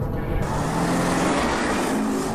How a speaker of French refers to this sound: c'est tout ce qu'on voit aujourd'hui dans Business en bagnole, jingle on est en voiture, on parle de business, d'immobilier, d'entrepreneuriat, de management, de mindset.